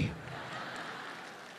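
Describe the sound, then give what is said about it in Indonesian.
An audience claps steadily, a dense, even patter of many hands that holds at a moderate level from start to finish without swelling or fading. “Itu yang tepuk tangan OB semua tuh.”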